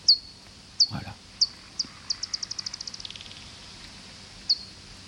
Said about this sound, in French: Et là, on a eu euh, donc les cris d'une pipistrelle qui est arrivée sur l'étang. Les cris s'accélèrent parce que la chauve-souris est en train de chasser. Elle détecte une proie.